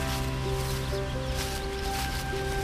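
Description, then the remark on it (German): A steady, continuous roar of rushing water from the Buchenegger Waterfalls in the Achrhein natural forest reserve in Bavaria, Germany, a dense hiss that stays even throughout, with a faint sustained tonal drone running underneath. “Langsam wird auch das Geräusch von tosendem Wasser lauter.”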